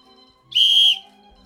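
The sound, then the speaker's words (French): A single sharp, piercing whistle blast lasting about half a second, loud and steady in pitch, standing out against a quiet background hum. “Sifflement strident.”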